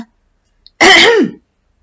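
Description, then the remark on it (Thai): A man clears his throat once, loudly, at the front of a room, a short rough rasp that dips in pitch as it ends, with silence around it. “เขากระแอมดังอยู่ที่หน้าห้อง”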